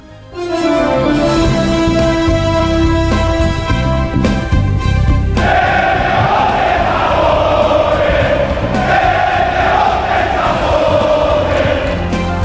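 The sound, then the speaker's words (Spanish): Several thousand protesters shout and chant at night on Calle Ferrá in Madrid, a loud, dense roar of many voices that holds steady throughout, with a sustained tonal wail standing out at the start. “No muy elaborados los gritos, pues no, los gritos que voceaban anoche varios miles de ciudadanos en la calle Ferrá de Madrid, muy elaborados pues no eran.”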